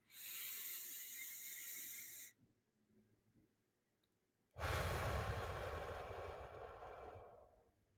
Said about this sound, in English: Uh, you know, breath work, just breathing.